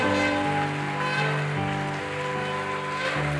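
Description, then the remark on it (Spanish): An audience in a church applauds the Lord loudly and steadily, a dense wash of clapping that carries on throughout, with sustained keyboard or organ chords ringing underneath. “Fuerte ese aplauso al Señor.”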